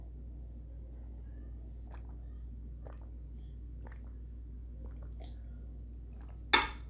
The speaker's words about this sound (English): Take a sip of my tea here.